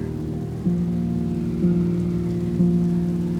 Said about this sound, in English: In the middle of this roaring storm, it may be cold out there